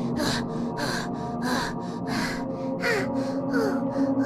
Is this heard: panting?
yes